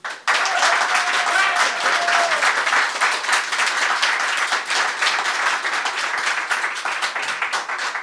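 A TV show audience votes with an applause meter: sustained applause, a dense, steady wash of many hands clapping that starts abruptly and holds strong for about eight seconds, with a brief tonal whistle or cheer early on.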